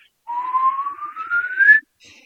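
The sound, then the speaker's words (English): A single clear whistle, imitated by a voice, rises steadily in pitch over about a second and a half, then stops abruptly, followed by a faint trailing sound. “And it, it was a pretty cool whistle. It was very crystal clear, kind of echoed here and there a little bit.”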